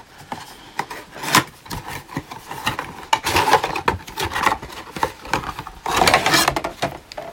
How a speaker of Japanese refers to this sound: たまたま見つけたんで買ってみましたメーカーズマートちょっと箱開けてみます